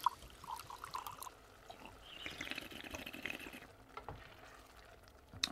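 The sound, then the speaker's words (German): Wine pours into a glass in a steady trickle, the splashing pitch rising slightly as it fills, then tapering off into a few faint drips, with no talking. “Soll ich schenken?”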